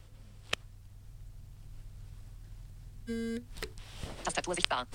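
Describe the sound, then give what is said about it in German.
A single short vibration buzz from a GoBrail braille keyboard, used with an iPhone, being switched off by a long press on dot 7, lasting about a third of a second, over a steady low hum, followed by faint handling noises and clicks. “Vielleicht war es zu hören, beim Einschalten vibriert das GoBrail ein bisschen stärker und länger als beim Ausschalten.”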